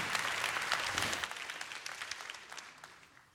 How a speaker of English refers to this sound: Well, if you want to clap, you clap to the Lord, not to me, okay? You're going to clap to the Lord, go ahead and do it. Don't clap for me.